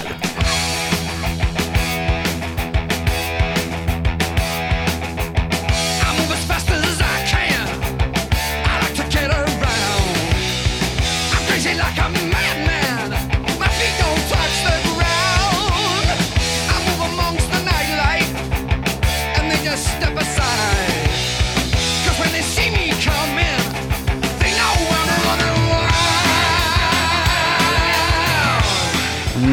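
A hard rock song recording plays loud and continuously for the full length, with driving rhythm, dense guitars and steady drums, and no one talking over it.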